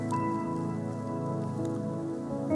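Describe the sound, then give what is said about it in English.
A church audience peeling open the plastic and foil seals of many small prepackaged communion cups at once, a dense, steady crinkling patter like light rain, set over soft, sustained background music with no talking. “Would you take this communion cup with me? Would you open the top layer?”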